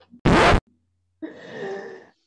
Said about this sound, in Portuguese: Tivemos o primeiro espirro desse podcast.